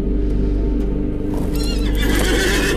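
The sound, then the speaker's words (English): A horse whinnies loudly, its high, wavering neigh rising over a steady rhythm of hooves clip-clopping, with no one talking. “So I'm gonna step on my horse”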